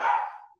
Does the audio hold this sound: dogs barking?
yes